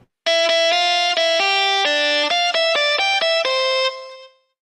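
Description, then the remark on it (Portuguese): A short, loud jingle of horn-like notes plays a bright stepping melody of about eight sustained tones, each rich in overtones, ending with a brief fade. No one speaks. “Preste atenção, vamos ouvir o homem depois da vinheta.”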